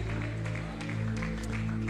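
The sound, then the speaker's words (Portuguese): An audience claps together as applause to the Lord Jesus, a dense, continuous burst lasting a couple of seconds, with a steady low sustained tone droning underneath the clapping. “Você pode dar um aplauso ao Senhor Jesus.”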